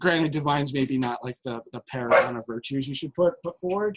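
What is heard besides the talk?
dog barking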